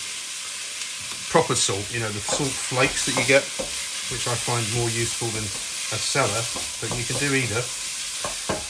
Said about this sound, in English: a mirepoix is something that you may not have heard before, uh, but it's what you call basically a mixture of carrots, celery, and onion which is cooking away nicely there